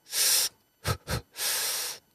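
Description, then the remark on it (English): Someone imitates a nervous new scuba diver who is afraid to release all their air, holding their breath: a long airy hiss, two quick tense catches of breath, then another sustained hissing breath. No words are spoken. “A lot of new divers are afraid to release all their air.”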